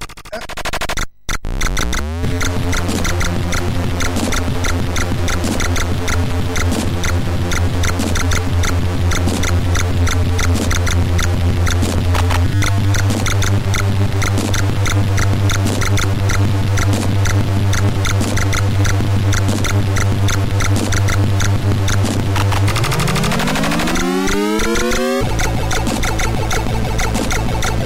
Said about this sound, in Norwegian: Nå er vi på Commodore 64. Oh yeah. Er det Arkanoid?